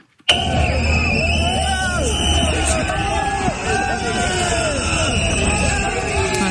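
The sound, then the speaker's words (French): A loud, chaotic crowd of demonstrators jostles and almost clashes with police at the opening of the agricultural Salon in Paris during a visit by President Emmanuel Macron, many overlapping shouting voices, bursts of yelling and jostling commotion filling the whole stretch without letup. “Ces images de bousculade, d'affrontements presque entre manifestants et forces de l'ordre au moment de la visite du chef de l'État, Emmanuel Macron.”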